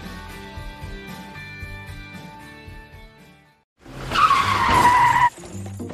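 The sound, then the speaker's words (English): Truck tires screech in a loud, harsh skid lasting just over a second during a crash, then cut off abruptly, following a steady rumbling drone and a brief moment of quiet. “Look what you have done to my truck!”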